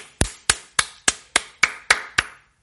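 hand clapping

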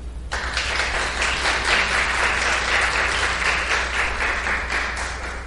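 welcoming applause

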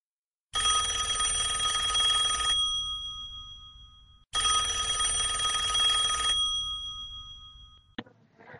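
telephone ringing

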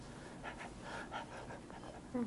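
dog panting

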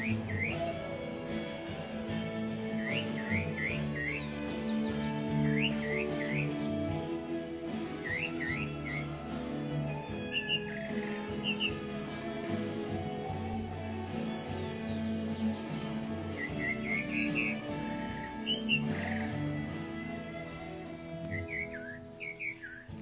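pet bird chirping

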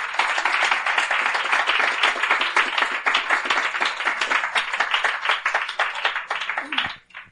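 loud applause

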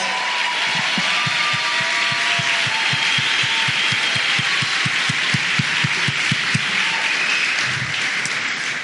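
loud audience applause

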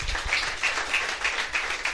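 audience applauding

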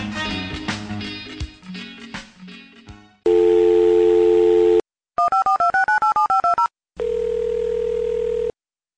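telephone dial tone

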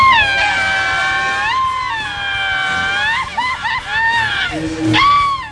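cat meowing loudly

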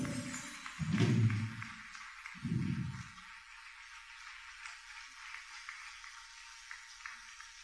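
audience applause

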